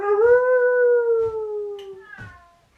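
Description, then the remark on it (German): A voice imitates a wolf howling: one long, steady howl that sags slightly in pitch over about two seconds, then a brief second rise that fades out. Fairly loud. “Also der Gückel macht Gückel und der Wolf macht.”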